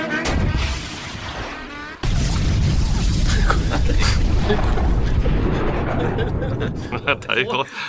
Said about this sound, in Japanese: 大砲で撃ったの大砲なのかな